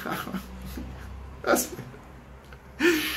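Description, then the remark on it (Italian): A person draws two sharp, deep breaths in through the nose, fairly loud, with a murmur of speech lingering underneath. “lui compra la macchina elettrica perché dice oh, io senti come respiro bene, senti qua.”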